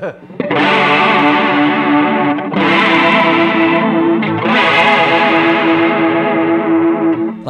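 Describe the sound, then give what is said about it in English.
A distorted electric guitar played through an amp rings out in three sustained chords, each swelling with a wavering, swirling modulation effect that adds constant movement to the tone, loud. “But then if you take this amp and then just, you know, like I don't even know what this next thing's gonna do.”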